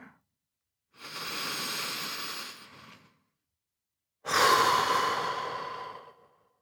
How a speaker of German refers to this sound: Atme durch die Nase ein und laut durch den Mund aus und entspanne dich dabei.